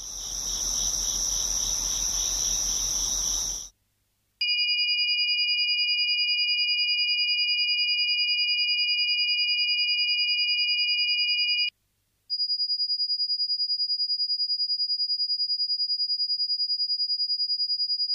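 Dense cricket-like chirring opens, then gives way to steady high sine tones whose two close pitches beat against each other in an even, pulsing rhythm, ending on a single pure tone.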